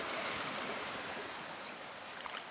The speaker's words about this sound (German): Direkt neben dem Campingplatz äh, fließt hier so ein kleiner Bach entlang. Hier haben wir uns jetzt äh, erfrischt kleines Bad genommen.